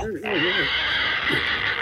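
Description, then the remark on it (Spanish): A person imitates a pig, giving a brief wavering vocal squeal followed by a long, harsh, breathy snorting oink that fills the rest of the short clip, loud. “Haz como puerco, haz como puerco.”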